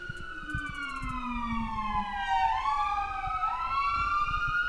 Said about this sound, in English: Wait for the ambulance to go by.